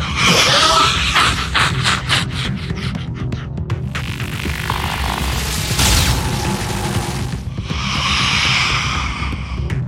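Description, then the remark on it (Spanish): A loud shot fires amid a throbbing, booming rumble, with a rapid burst of sharp pulses early on and a single bright crack later, no voices. “¡Buen disparo! Pero asegúrate de acertar al objetivo.”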